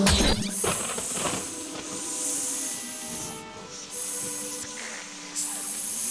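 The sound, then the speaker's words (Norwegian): A snake hisses in several sharp, breathy bursts over a faint rustling, as if an adder were slithering through grass. It sounds fairly loud, and nobody speaks. “Hva er den lyden? Hva er det renner i gresset her? Ah! Hoggormhistoria.”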